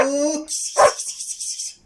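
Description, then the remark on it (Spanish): A dog gives a short bark after a brief high whine, followed by a faint, pulsing high-pitched noise that fades out near the end. “¡Qué lindo perrito!”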